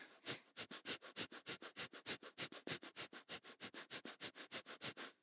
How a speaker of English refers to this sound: your stomach's half full of air and it's just really quick exhales